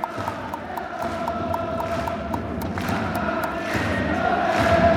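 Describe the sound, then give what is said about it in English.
A large crowd of football supporters at a J League match in a Japanese stadium sings together in a sustained chant, backed by steady rhythmic clapping or drumbeats, the dense roar building slightly louder toward the end. “you're getting some proper full board J League, classic popcorn singing, classic popcorn jumping”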